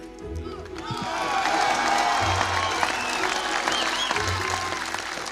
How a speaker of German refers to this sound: Dieser stürmische Applaus, das war in Berlin am 12. Juni 1987. Und eine der beiden Stimmen haben Sie bestimmt erkannt. Es ist Ronald Reagan, der damalige amerikanische Präsident, bei seiner berühmten Rede am Brandenburger Tor.